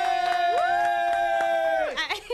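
An audience applauds a guest's welcome, with scattered claps under a loud, sustained cheer that rises in pitch, holds steady, then drops away near the end.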